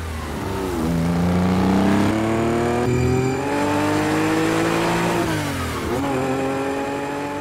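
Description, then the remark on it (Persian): A Porsche 911 sports car engine revs loudly, its pitch climbing steadily through several gear changes with brief dips between them, with no voices. “اینجوری بود که مهمترین ماشین اسپورت تاریخ متولد شد پورشه 911”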